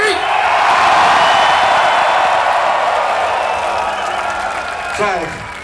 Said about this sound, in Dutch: Hey, als jullie nou even heel hard, heel hard eh, juichen, dan kom je ook nog ergens een keer op, eh, op het internet te staan. Doe eens even 1, 3!